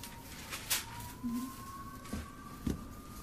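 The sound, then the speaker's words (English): A siren wails outside in a thin, steady tone that drifts slowly in pitch, faint beneath a few soft bumps and rustles. “There's them sirens and everything going on.”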